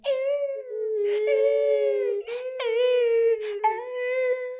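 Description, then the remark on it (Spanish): A female dog howls in one long, wavering, wolf-like note that rises and dips in pitch, with brief breaks and catches, loud. “Lobos, güey. Bueno, no. Mi perra, es lobo.”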